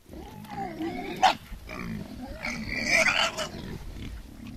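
wild boar grunting

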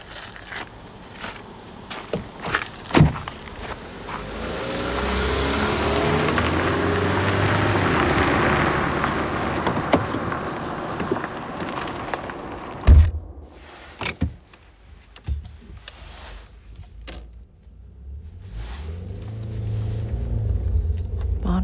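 car driving

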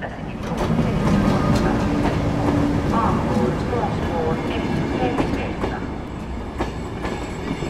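train passing on rails

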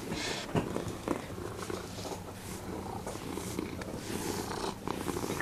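cat purring

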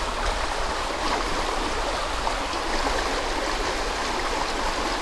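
small river rapids rushing

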